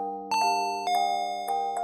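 doorbell ding-dong

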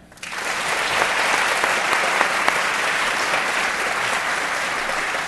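audience round of applause

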